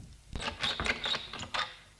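A door is opened at 9 p.m. for a visitor who rang: a clatter of latch and hinge, a quick run of short mechanical clicks and creaks lasting over a second, moderately loud, with no voices.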